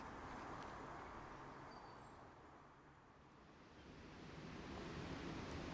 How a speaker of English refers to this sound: Well, for our final stop, we've come down to the very distinctive Pulteney Weir in the middle of Bath, where the River Avon streams over three dramatic drops um, in a great sort of swoosh of brown and white foam.